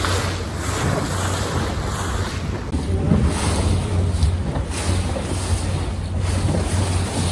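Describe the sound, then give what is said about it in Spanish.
Waves wash continuously along the Bay of Santa María on the island of Madeira, a steady broad roar with gentle surges, while gusty wind buffets the microphone and a low rumble sits underneath. No one speaks. “Esta bahía de atrás de mí se llama la Bahía de Santa María porque dos hombres la descubrieron.”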